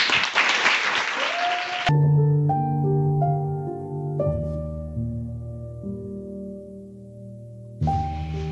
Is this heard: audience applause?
yes